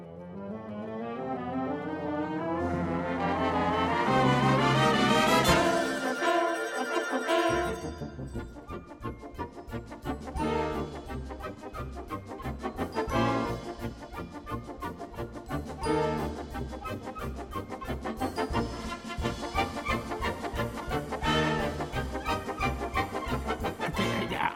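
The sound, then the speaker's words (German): A rising, wailing fire engine siren (Martinshorn) opens, then the Feuerwehrgalopp, a brisk, loud orchestral galop, takes over with fast, driving rhythm and regular percussive accents, playing on without any voices. “Tja, und das hier ist der Feuerwehrgalopp. Und wenn ihr genau aufpasst, dann hört ihr sogar das Martinshorn.”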